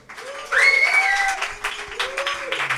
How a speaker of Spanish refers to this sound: Un aplauso.